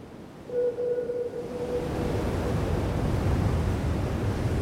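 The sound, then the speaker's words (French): Loud, steady roar of rough sea and wind, with a brief howling tone rising early on before the broad churning rush of waves and gusts fills the rest, no voices. “L'obscurité redouble, les vents mugissent avec plus de violence que jamais, les vagues se succèdent avec force et rapidité.”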